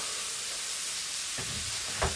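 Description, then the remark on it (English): Chicken and chorizo, with parsley and carrot, sizzle steadily in a hot pan, a bright continuous crackling hiss, with a couple of soft low thuds near the end as the food is moved. “So you can hear it sizzling away there.”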